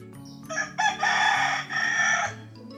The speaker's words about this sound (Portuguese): O galo cantou. Ele veio avisar.